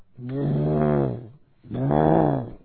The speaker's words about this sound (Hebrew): שהרבה פעמים היונה היא על הגוזלים או הביצים, היא עושה רעש. שמעתם את הרעש של היונה פעם בלילה?